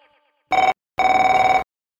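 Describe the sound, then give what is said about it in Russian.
A telephone rings loudly: a short trilling burst, a brief pause, then a longer rattling ring, with no one speaking. “Не звонит.”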